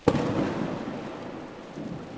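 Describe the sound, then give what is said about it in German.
A sharp crack of thunder bursts out and rolls away into a steady wash of rain, with no voices present. “Ein Blitz durchzuckte den Tag.”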